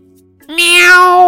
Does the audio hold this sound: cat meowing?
yes